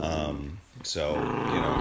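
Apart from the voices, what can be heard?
dog growling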